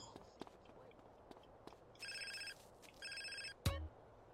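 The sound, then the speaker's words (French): An old 1990s mobile phone in a video game rings in two short electronic bursts about a second apart, fairly clear over faint background clicks, followed by a brief thump. “Regardez le gros téléphone des années 90.”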